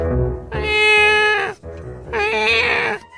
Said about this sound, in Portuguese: tira esse gato de perto de mim, maluco! Eu não aguento mais esse miado doido!